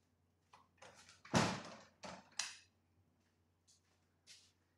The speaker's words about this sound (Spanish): Eh, déjame abrirle la puerta al gato, hombre.